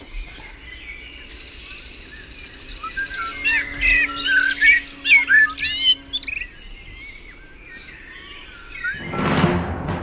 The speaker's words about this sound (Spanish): el desafío del Mirlo